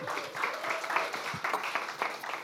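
A crowd applauds in a steady, dense wash of clapping that fills the whole moment, moderately loud and continuous without pauses, with no one speaking over it.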